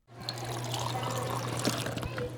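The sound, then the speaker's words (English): Two preschoolers fill glasses from a water dispenser in a school cafeteria in New Salem, Massachusetts: a steady, continuous pouring stream with a low mechanical hum underneath, lasting a couple of seconds. “On a recent morning, two preschoolers filled glasses from a water dispenser in the cafeteria at the Swift River School in New Salem, Massachusetts.”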